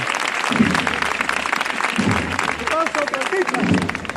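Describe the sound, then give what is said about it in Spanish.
A crowd in the Macarena neighbourhood applauds the passing procession of the Señor de la Sentencia in a steady, dense wash of clapping that fills the whole stretch, with people's voices calling and talking underneath the applause. “Y las palmas.”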